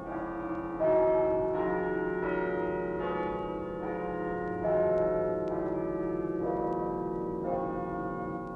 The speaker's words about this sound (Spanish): Un cilindro giratorio con clavijas. Las clavijas iban jalando los alambres al dar vuelta al cilindro y los alambres accionaban unos martillos que golpeaban las campanas.